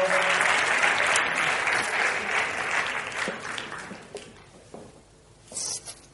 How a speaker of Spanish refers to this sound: Muchas gracias, un fuerte aplauso para él. Muchísimas gracias.